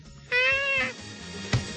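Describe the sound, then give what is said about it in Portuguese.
A single soft, drawn-out cat meow, sweet and pleading, made by a cat wanting something from a person, followed by a brief faint rustle or thump against a quiet background. “E o que é aquilo de quando eles precisam alguma coisa de nós, os gatos olharem meigamente para a gente, aquele olhar meigo, e fazerem.”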